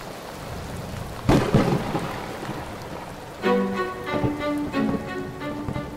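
Heavy rain hisses steadily throughout while thunder cracks loudly near the start, then rolls and rumbles again through the second half. No voices are heard.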